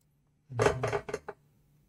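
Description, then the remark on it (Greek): A die clatters across a hard tabletop in a quick burst of four or five sharp, bouncing knocks that slow and settle within about a second, clear, with no talking. “Άρχισε εγώ ένα ζάρι λίγο να δω κάτι.”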